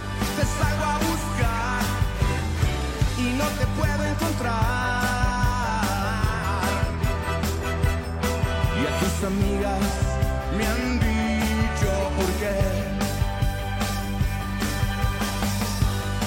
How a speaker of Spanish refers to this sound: Y es parte de rock en tu idioma sinfónico y así se oye en versión sinfónica